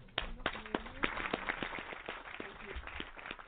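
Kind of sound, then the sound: crowd, round of applause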